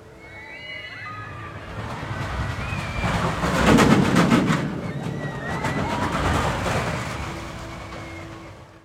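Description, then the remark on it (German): A roller coaster thunders through its loop with a deep, rolling rumble that swells to a loud peak midway, then eases off. High metallic squeals and whistling tones ride over the roar. “Also es ist wirklich ein tiefes Grollen.”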